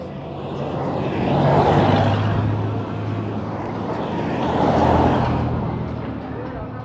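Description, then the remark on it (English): Steady roadside traffic rumble with a low engine drone as a person walks by; a truck carrying three federal police officers swells past twice, rising and fading within a few seconds, with no clear speech. “So I'm walking by and I just passed by a truck full of, well, not full, but it's a, a truck with three federal cops.”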